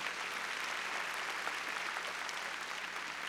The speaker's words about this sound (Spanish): A ver, démosle palmas fuertes al Señor.